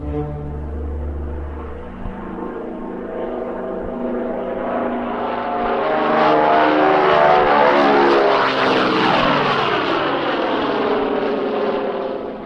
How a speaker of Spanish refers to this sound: En ese instante tuve la revelación de los aviones fumigadores que aterrizaban y despegaban por la curva del camino viejo rumbo a Palos Verdes.